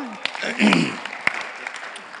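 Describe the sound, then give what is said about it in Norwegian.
An audience applauds steadily for those who have attended every Sunday of a series on Nehemiah, a dense patter of many clapping hands with a few sharper claps standing out, and a voice briefly rising over it. “Det er i hvert fall verdt en applaus.”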